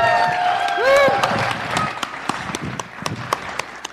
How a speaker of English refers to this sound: Let's give him a hand clap, everybody. Good job.